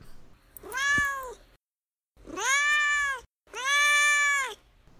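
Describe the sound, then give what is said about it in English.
A domestic cat named Duarte meows three times in a row, long drawn-out calls that are loud, each separated by a brief pause, with no talking. “Well, now it's time for Duarte's corner, where my cat Duarte weighs in with his two cents about the book.”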